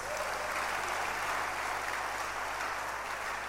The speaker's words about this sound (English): Clap your hands for your three pastors.